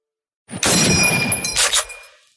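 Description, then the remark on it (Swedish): A loud burst of metallic clinking and jingling as coins and kronor are counted, bright ringing tones, a second brief flurry, then a fading shimmer. No voices. “Vi räknar redan mynten och kronorna här, som ni hör.”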